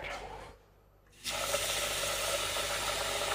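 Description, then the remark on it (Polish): Cold water streams steadily from a tap as rice is rinsed, briefly stopping before gushing on again strongly with a broad, continuous hiss, fairly loud, with no one speaking. “to ja teraz będę ten ryż płukała”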